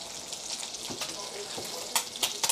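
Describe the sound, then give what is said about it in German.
Steady sizzling and crackling of artichokes frying in a pan, with a few sharper pops and spits toward the end; no voices. “Also das langsame Wurzeln, man ja, genau. heftig wurzelt und genau. zischt.”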